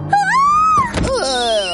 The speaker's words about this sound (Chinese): 白狐狸重重的撞上了一个车门。原来是柴犬夫人正准备下车，他一开门，白狐狸就撞了上来。随着一声惨叫，车门上留下了一个狐狸形状的大洞。